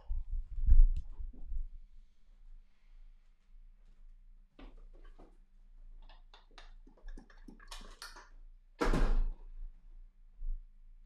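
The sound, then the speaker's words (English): A chair crashes over with a heavy thud, followed by a rattling scrape of clatters and one final loud slam as it hits the floor. “I hope that chair broke.”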